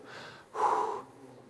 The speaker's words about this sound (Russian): Первый шаг. Дыши. Вдох-выдох.